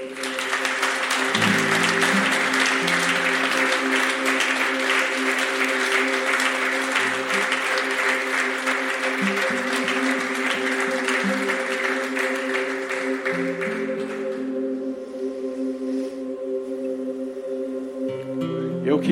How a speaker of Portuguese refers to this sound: Vamos aplaudir a Deus?